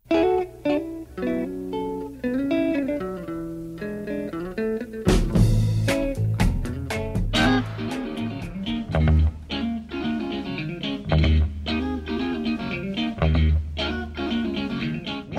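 A melodic electric guitar plays a smooth, flowing intro, then a full band kicks in with bass, drums and horns at a steady soul groove, loud and close.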